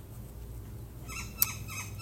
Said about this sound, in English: I don't know if on this journey, as these beautiful birds sing their song for this day,